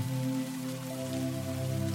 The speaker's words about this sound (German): einen langen, gemütlichen Tag vor sich, äh, um äh, den Regen zu beobachten und den Wind da draußen.